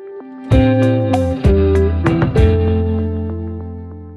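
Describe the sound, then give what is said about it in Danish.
A short musical transition sting with three loud, punchy hits about a second apart over sustained, distorted tones, ringing out with a reverberant tail. No one speaks. “Ja, så tager vi lige en skillerlyd.”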